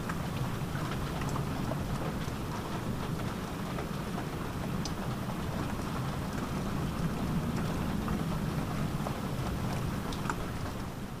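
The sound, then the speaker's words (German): Steady rain pours down with scattered drops pattering, while a low, soft rumble of distant thunder rolls underneath throughout. No voices. “Als du das Schlafzimmer betrittst, hörst du ein Donnergrollen in der Ferne, das dir eine angenehme Gänsehaut beschert.”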